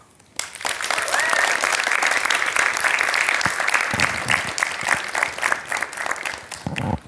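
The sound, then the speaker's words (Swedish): A live audience breaks into sustained applause for a narrator sitting among them, a dense wash of clapping that starts abruptly and holds steady for several seconds before tapering slightly at the end. “Så jag tycker att ni ska ge henne en applåd.”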